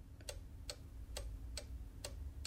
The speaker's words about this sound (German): als ob der Zeiger auf der Wanduhr einfach auf seiner Stelle festkleben würde und alles, was ich höre, ist nur das Ticken der Sekunden.